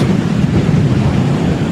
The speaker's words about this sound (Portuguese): Barulho do vento aqui no Parque Aquático, é ou melhor, no Parque é, Parque Turístico do Batuva. Rapaz, que vento forte! Ondas são formadas no Lago do Batuva.